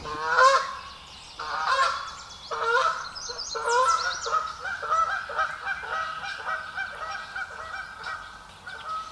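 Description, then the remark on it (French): Canada geese honk repeatedly in a noisy, overlapping chorus, their nasal calls coming in quick bursts throughout, loud with no talking. “Mais Fly Home m'a appris que les bernaches canadiennes en ont 13.”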